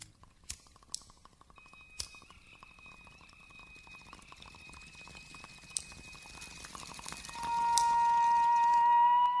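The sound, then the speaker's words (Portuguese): A crack pipe being lit inside a recording studio before a recording, in a song's intro: a few sharp lighter clicks, then a soft crackling, bubbling sizzle that grows steadily louder, with faint steady tones humming underneath. “na introdução da música, dentro do estúdio, acendendo o cachimbo de crack antes da gravação.”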